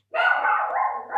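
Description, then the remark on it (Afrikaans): A household dog barks in one long, drawn-out, tonal burst lasting about a second, fairly loud, with no one talking over it. “Skus, dis net my hond wat blaf.”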